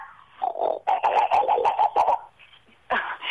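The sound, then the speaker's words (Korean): A person imitates a pig with a run of rapid, guttural grunting and snorting bursts, fairly loud, followed by a brief pause and another raspy burst, the first of a series of farm animal impressions. “돼지부터 할게요.”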